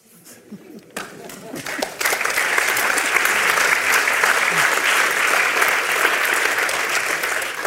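Audience applause starts softly with a few scattered claps, then swells after a couple of seconds into steady, dense clapping from many hands that holds at a loud level to the end.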